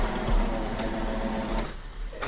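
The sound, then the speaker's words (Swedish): A coffee machine, left switched on, whirs and hums steadily, a continuous mechanical drone with a faint tonal buzz that thins out near the end, with no voices present. “Jag kaffe för jag glömde stänga av den innan. Ja, men det är inte lätt att ha kaffemaskin.”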